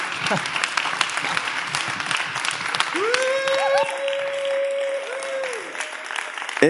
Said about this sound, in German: Lass uns heute Abend Pastor Friedhelm Holtis willkommen heißen mit einem riesigen Applaus.